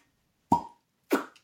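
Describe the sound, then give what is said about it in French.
Two short knocks about half a second apart as a wine cork is set down on a hard tabletop, each with a brief hollow ring, with otherwise quiet surroundings. “J'aurais pu pas poser le bouchon sur la table, bon.”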